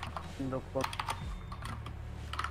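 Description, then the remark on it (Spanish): Clicking keystrokes from a computer keyboard tap along steadily, with brief bursts of muffled voice sounds and a low background hum underneath. “No yo hay creo que yo lo que escucho son teclas.”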